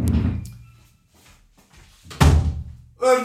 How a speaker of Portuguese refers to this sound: Ah, bem, vou fechar a porta, desculpem lá.